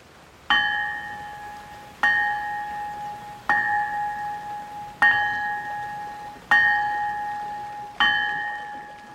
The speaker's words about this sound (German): man hat versuchsweise mal die eisernen Glocken hier gegossen, aber der Klang ist kein schöner im Vergleich zu den heutigen Bronze- und Stahlglocken